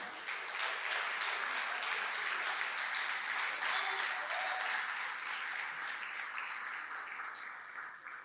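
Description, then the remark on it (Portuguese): A crowd applauds the Lord steadily, a dense wash of many hands clapping at once, sustained at an even level for several seconds before tapering slightly at the end. “Você pode aplaudir o Senhor tá até que eu beba água?”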